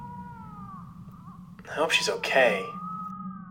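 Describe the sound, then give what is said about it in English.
A thin, drawn-out wailing cry from a small creature, wavering and fairly faint, continuing steadily before and after a person briefly speaks over it midway. “I don't know if you guys can hear that, but it sounds like crying, doesn't it,”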